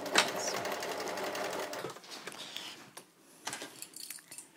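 An older sewing machine runs in a steady, rapid mechanical whir for about two seconds, then stops, followed by small clicks and light metallic clatter.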